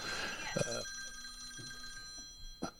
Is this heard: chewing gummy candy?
no